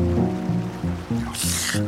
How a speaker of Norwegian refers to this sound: Hva var det for et plask? Eit, eit, beklager, det var bare meg.